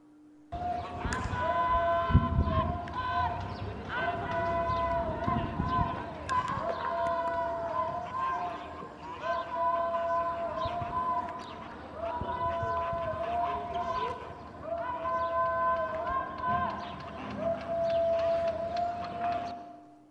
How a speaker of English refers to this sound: Now, in case you didn't hear that, they were screaming Allah Akbar. And so, as we're coming down the steps, all of a sudden we hear this yelling, Allah Akbar, over and over again.